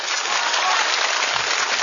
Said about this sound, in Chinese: 在座的各位，希望我继续坐在这里的，掌声鼓励一下。